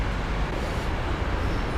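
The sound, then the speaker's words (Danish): Steady, dense rumble of road traffic on H.C. Andersens Boulevard, a main traffic artery with three lanes in each direction, outside the Glyptotek in central Copenhagen. A continuous low roar of passing vehicles with no distinct breaks, fairly loud, with no voices. “Glyptoteket ligger ud til H.C. Andersens Boulevard, som er en trafikal hovedpulsåre.”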